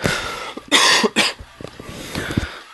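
A close, loud coughing fit: two harsh, raspy bursts in quick succession, followed by quieter coughs and throat-clearing sounds trailing off, with no talking.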